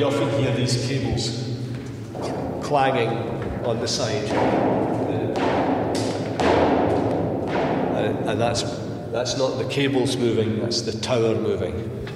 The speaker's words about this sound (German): sondern auch der Turm selbst ist in Bewegung, sodass die Kabel von innen an die Wände knallen.